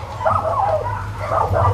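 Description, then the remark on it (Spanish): A dog barks in two short bursts of yappy, slightly whiny barks, moderately loud, over a steady low background hum with no one talking. “Cállate, pinche perro.”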